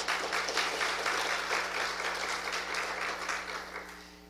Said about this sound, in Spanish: Démosle un fuerte aplauso al Señor Jesús.